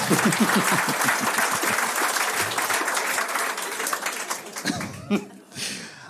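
An audience breaks into sustained applause, a dense wash of clapping that holds steady for several seconds before thinning out, with a few voices and scattered chuckles mixed in near the end.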